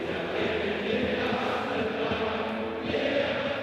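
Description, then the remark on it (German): A stadium crowd of Eintracht Frankfurt fans cheers in a steady, dense roar as the team celebrates holding the trophy amid golden confetti. The roar is loud and continuous throughout, with no single voice standing out from the mass of sound. “Jubel jetzt mit dem Pokal in der Hand.”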